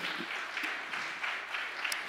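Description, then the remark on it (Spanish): A crowd breaks into sustained applause, dense overlapping clapping that holds at a steady, full level for a couple of seconds with no voices on top. “El otro aplauso fuerte.”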